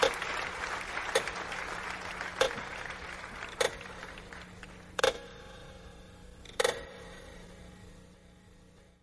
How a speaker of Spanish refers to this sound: Fuerte aplauso para los músicos